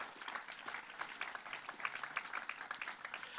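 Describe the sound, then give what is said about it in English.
An audience applauds steadily for the Reagan Library, a dense wash of many hands clapping at once with no pauses, moderately loud and sustained throughout, without any voices standing out. “Thank you for round of applause for the Reagan Library, please.”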